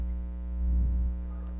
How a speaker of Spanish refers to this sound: Hay un poquito de ruido todavía, Santi, mucha interferencia